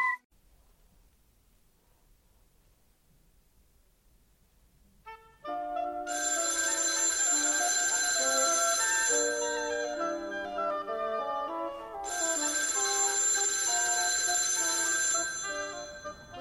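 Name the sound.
telephone ringing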